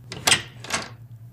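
A door being opened as someone goes inside: two quick, scraping bursts of latch and movement, one right after the other, over a steady low background hum.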